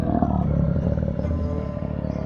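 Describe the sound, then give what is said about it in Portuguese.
A lion's deep, rumbling roar fills the whole stretch, loud, holding steady for a couple of seconds with no one speaking. “Ao tentar sair de sua casa, o ratinho deu de cara com um grande leão, deitado na porta da toca, bloqueando a sua passagem.”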